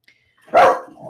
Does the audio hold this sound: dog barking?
yes